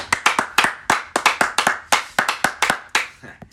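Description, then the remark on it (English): Steady hand clapping, about a dozen sharp claps at an even, slightly uneven pace, like one or two people applauding, with no talking, for the Lions winning their first game. “Round of applause for the Lions for winning their first game finally.”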